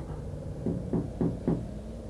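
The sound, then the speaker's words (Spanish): Four soft, evenly spaced knocks on a door, slightly muffled and hesitant, over a quiet room background with no voices. “Tocaron a la puerta de forma extraña.”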